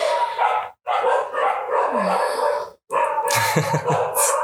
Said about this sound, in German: Diese Hunde, ey, die machen mich fertig. Ja, mach weiter, es wird nicht besser.